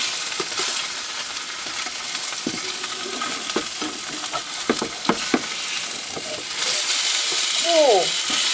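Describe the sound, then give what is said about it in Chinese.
A salmon fillet sizzles steadily in a pan without oil, its other side fried golden, a continuous crackling hiss broken by sharp clicks and scrapes, growing louder toward the end, where a brief voice-like sound slides through. “好，鲑鱼的另外一边呢，也已经煎到有金黄色了。”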